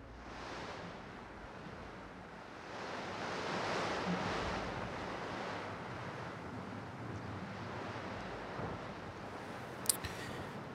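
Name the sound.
strong wind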